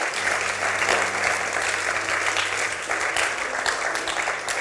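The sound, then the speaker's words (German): Sustained audience applause at a church service fills the whole stretch, a dense steady wash of many hands clapping at once, fairly loud, with no talking over it. “Komm mal, wir geben nochmal Applaus.”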